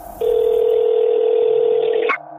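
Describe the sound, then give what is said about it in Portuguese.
A steady telephone tone sounds loud for about two seconds, then cuts off abruptly, like a call being placed on a landline, with no voices present; part of a reconstruction of a phone call to a police department. “então não houve registros oficiais da ligação para apresentar aos investigadores. No entanto, uma reconstituição foi feita para que a pista se tornasse mais palpável, a qual vamos ouvir a seguir.”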